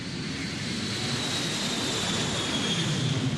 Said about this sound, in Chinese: 在窗台前整理杂物，忽然听到了飞机飞过的声音。